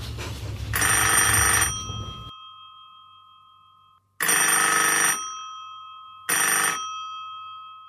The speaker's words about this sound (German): Und jetzt warten wir auf den Anruf